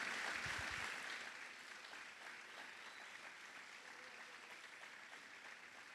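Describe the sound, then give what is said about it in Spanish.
A crowd of believers claps loudly for the Lord one morning: a dense, steady wash of many hands that starts loud and eases slightly after the first second, continuing for several seconds with some faint voices mixed in. “Y si hay gente que cree en esta mañana, aplauda fuerte al Señor.”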